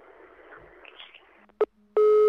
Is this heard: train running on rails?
no